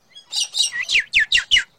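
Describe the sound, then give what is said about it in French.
A bird chirps in a quick run of about six bright, high tweets, the later ones sharp downward-sliding notes, clear with nothing else around them. “Faisait l'oiseau.”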